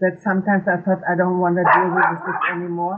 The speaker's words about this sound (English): And um, the postman comes, you can hear the dogs barking. I and, thought they um, reacted on your story about stress and about the wife. it's the post, they're screaming for the post.